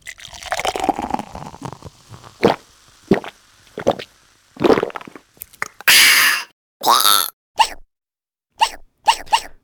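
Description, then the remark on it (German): A treeshrew calling with a run of short, sharp squeaks and chirps, some harsher and buzzier, spaced irregularly with brief silences between them. “Das ist das Spitzhörnchen. Richtig, und so hört es sich an.”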